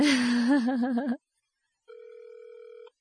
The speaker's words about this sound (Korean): 자 전화가 가고 있는데요. 이 양반 내 전화를 안 받는 것 같아.